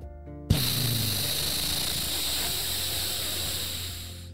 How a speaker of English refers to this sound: The sound of the flame was very loud and bright and hot. Instantly, it melted a hole up in the, the sky.